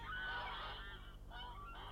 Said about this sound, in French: À ce moment, il entendit au-dessus de sa tête le cri d'appel des oies sauvages. Où es-tu Je suis ici Où es-tu Je suis ici